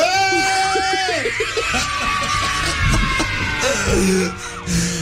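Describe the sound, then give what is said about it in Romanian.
Voices imitate a goat's bleat in recordings sent in by radio listeners in Romania, producing wavering, nasal cries that rise and fall over each other, loud and sustained with brief gaps, blending into laughter-like vocal noise. “România Face ca o capră acum Este incredibil ce s-a întâmplat”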